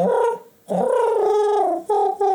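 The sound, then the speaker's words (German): A person imitates a pigeon's cooing: a short hum, a brief pause, a long wavering coo, then two quick clipped coos. No other talking. “Eine Taube macht.”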